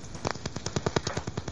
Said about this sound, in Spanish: si alguien está ahí disparando en medio del monte, ¿qué es lo que pasa?